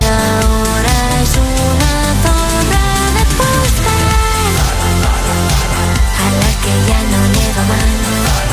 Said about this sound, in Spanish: la canción …, por si no la habéis escuchado,